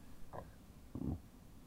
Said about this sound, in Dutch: Boertje.